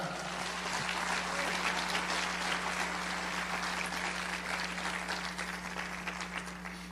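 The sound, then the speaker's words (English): An audience gives God a hand clap, applauding steadily for about seven seconds, a dense, even patter of many hands clapping at once with no one speaking, holding at a constant level before easing slightly at the end. “Give God a hand clap where you're at.”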